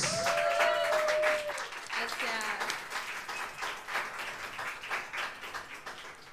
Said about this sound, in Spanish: Pero por favor, un aplauso muy fuerte para los brasileños.